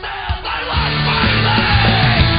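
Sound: screaming vocals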